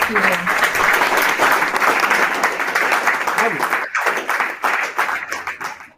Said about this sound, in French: Et je proposerais bien un petit applaudissement pour les élèves et pour les professeurs.